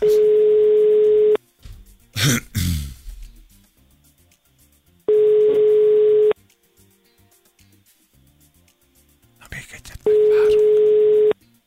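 A phone call rings out unanswered: three long, steady ringback tones at even intervals over a line, with brief noisy clatter between the second and third rings.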